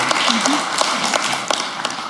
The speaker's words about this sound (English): Just so you know, they're clapping for you because I'm certain none of us were clapping for that letter.